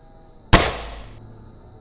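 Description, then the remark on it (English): A single loud gunshot, a shot to a man's head, cracks out of near silence, its sharp report trailing into a brief echoing decay that fades within about a second. No voices are heard. “you all hear the gunshot and you all kind of turn to look as Trent's body falls forward.”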